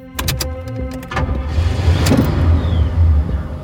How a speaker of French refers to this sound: une voiture banalisée le suit et se gare à quelques mètres de sa voiture, sur le large parking de Hobby Lobby.